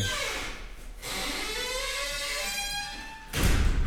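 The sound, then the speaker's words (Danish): A door at a concrete silo built in 1960 creaks slowly on its hinges, a long drawn-out groan with shifting, rising and falling tones, ending in a dull thud as it closes. No one speaks. “det er bare døren og ikke betongen, der knirker.”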